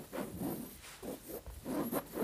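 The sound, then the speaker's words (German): A fork rattles and scrapes against a surface to mimic a spinning coin, making a rhythmic series of about five or six raspy, whirring pulses with no one talking. “Ja, wie klingt eine blöde wie, Münze, die ich rum. Naja, man, ja. man hat schon so ja, das Gefühl, wie es klingt, aber wie, aber wie willst du das machen?”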